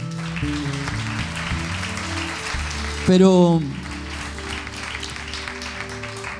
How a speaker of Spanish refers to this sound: Diga, denle un aplauso fuerte a su Señor ahora.